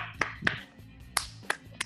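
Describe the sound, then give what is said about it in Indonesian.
A few scattered, uneven hand claps at a talk about coronavirus myths, about five sharp slaps spaced irregularly, thin and fairly quiet, like a small audience giving only sparse, half-hearted applause, with no voices. “Tepuk tangan dulu untuk kita semua.”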